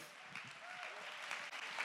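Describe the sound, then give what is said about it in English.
A crowd claps hands to give God praise in steady, dense applause, a broad wash of overlapping claps sustained throughout, with faint voices murmuring underneath. “Come on, somebody, clap your hands and give God the praise.”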